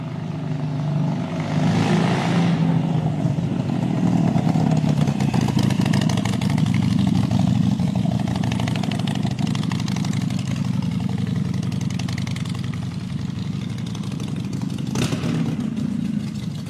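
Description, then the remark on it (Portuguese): An old Harley-Davidson motorcycle engine idles with a steady, loud, low rumble that holds for the whole stretch, with a brief surge in intensity near the end and no voices, as the rider stops it on a hilltop near a small cave. “Ele sai da estrada e se dirige ao alto de uma colina e chegando próximo à pequena gruta, ele para a velha Harley Davidson, desce do veículo e se dirige para a crista do penhasco.”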